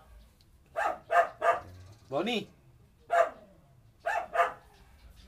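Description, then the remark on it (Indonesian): A wolf at a zoo barks in a string of sharp yaps, mostly in quick pairs and threes, with one more drawn-out, whining yelp in the middle; a voice speaks briefly. “Itu kita lagi di sebuah tempat yang kebetulan ada kebun binatang. Ya. Serigala barusan.”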